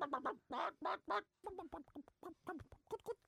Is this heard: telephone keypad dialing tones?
no